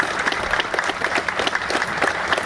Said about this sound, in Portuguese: Nosso minuto do barulho uma grande salva de palmas. Aqui em frente onde funcionava a Boate Kiss.